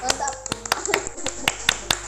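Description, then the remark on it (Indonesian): A short burst of hand clapping for a high school student council, about eight or nine sharp claps at a loose, uneven pace, with faint voices murmuring in the background. “Tepuk tangan dong buat OSIS SMA Don Bosco 2.”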